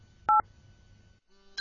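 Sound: phone keypad dialing tones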